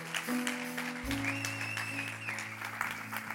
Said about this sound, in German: Ähm, und ihr dürft gerne mal richtig klatschen.